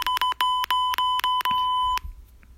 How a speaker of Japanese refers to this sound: はい、ということで、えー、さっきのね、言葉をね、P 音の裏は一体何を言っていたのか、えー、ご想像にお任せしたいと思います。